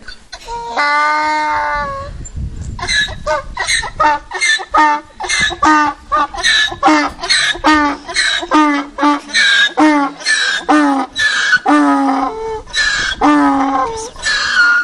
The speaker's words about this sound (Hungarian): Na hát már a hangját hallottátok, és itt már jelentkeznek is, akik mondják, mond csak. Csacsi, így van, egy szamarat hallottunk.